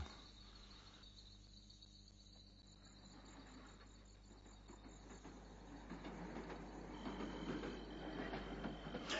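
A freight train rumbles along nearby, a steady low mechanical drone with rhythmic clatter that grows louder and busier toward the end; no voices are heard.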